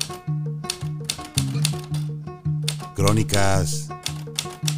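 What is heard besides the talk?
typewriter keys clacking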